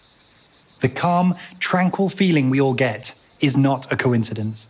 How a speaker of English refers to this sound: What you're hearing is the sound of a native forest in southern Europe.